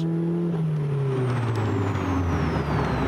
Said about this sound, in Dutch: Aero Racing sportuitlaat. Ja, het motorgeluid, die krijgt wel een hele mooie nadruk hier. En dan van die lekkere Lekkere plofjes als je het gas loslaat.